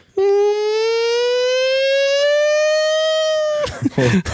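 A loud siren from an old fire engine, sounded by supporters during penalty shots at a team game, wails in one long, steady blast, its pitch creeping slowly upward for a few seconds before cutting off abruptly into brief rough noise and voices.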